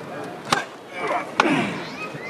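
Two sharp wooden knocks from a procession float's hammer as it is struck to call, about a second apart, each a loud crisp strike rising above a steady murmur of crowd noise.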